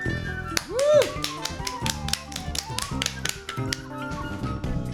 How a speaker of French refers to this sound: On applaudit